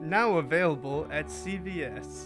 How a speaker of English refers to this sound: hearing a cat in the background for some reason, that's my cat, man.